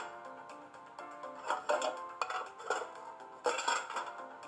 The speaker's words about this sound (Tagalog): nahulog na kaldero.